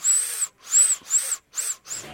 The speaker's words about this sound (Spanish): Ese es el, chiflido más naco que he escuchado en mi vida.